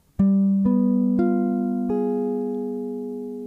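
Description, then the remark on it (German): A G7 chord with a flat nine on top is played on a keyboard, its four notes entering one after another in quick succession, then ringing together and slowly fading, with no talking. “G7, B9.”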